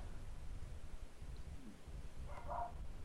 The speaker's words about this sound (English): Attack dogs.